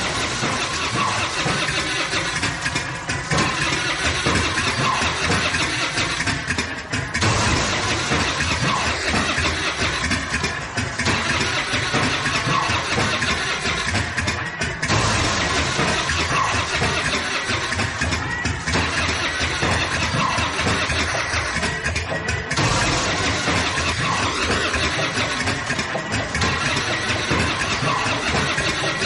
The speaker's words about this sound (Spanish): gira una llave e intenta poner en marcha un motor.